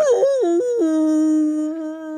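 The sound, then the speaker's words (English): A person voices a long, wavering, tonal moan imitating a whale call, sliding down in pitch and then holding steady for about two seconds, fairly loud. “that was my best whale.”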